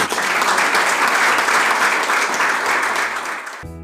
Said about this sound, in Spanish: Un aplauso, por favor.